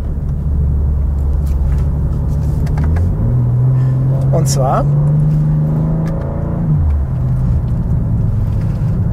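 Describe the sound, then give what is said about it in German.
A powerful BMW engine drones loudly with all settings switched to sport mode, its pitch stepping up into a higher sustained rev before dropping back down, with a brief spoken word over it. “Wenn ich aber alles auf Sport schalte, und das kann ich mit einer der beiden roten Tasten am Lenkrad, wenn ich sie mir entsprechend konfiguriert habe, dann kommt Sound dazu.”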